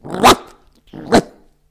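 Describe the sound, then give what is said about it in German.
Two harsh, raspy barks, loud with a short pause between them: a human voice imitating the alarm bark of a water deer. “So, ja, der Schrecklaut des Wasserrehes, ein harsches Bellen.”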